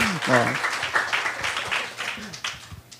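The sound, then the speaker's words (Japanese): A crowd breaks into a dense patter of clapping that carries on for several seconds, with voices talking over it and a brief spoken phrase at the start. “シャイなお方だからやってくれると思わなかったけどやると言ってはい素晴らしいちょっと拍手を送ってあげたら。”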